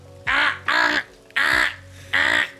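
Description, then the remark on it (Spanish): Four loud, nasal quacks in two quick pairs, a person imitating a duck's call, each honk harsh and buzzy with a short gap between pairs. “No está dando el pato de Aflac.”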